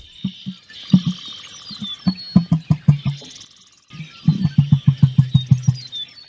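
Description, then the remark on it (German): An emu's deep drumming call: two series of low, hollow thumps in a quickening rhythm, with a short pause between them, over faint, high bird chirping in the background. “Trommelndes Gesang. Brrr. Ob das wie Bongos sind oder wie so ein Bass.”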